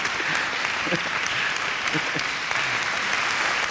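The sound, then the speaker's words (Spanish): Steady audience applause fills the whole stretch, a dense crackle of many hands clapping at an even, fairly loud level with some faint vocal murmurs mixed in. “Deja, deja que te aplaudan, analista, ¿eh?”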